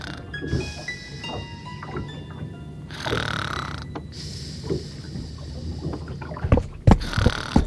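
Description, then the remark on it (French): A wooden boat creaks and groans as it rocks on the water, with long drawn-out strains and scattered knocks over a low, steady rumble, growing busier near the end. “Elle somnole, en se laissant bercer par le roulis du bateau.”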